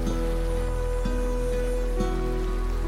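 A steady, continuous wash of flowing water from a clear brook running through a forest, at moderate loudness, with soft sustained musical tones and a gentle repeating pulse about once per second.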